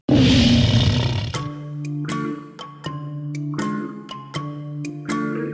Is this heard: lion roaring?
yes